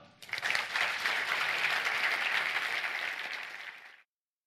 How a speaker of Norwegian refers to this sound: Vi er ved veis ende for denne gang. Gi dem en applaus, da!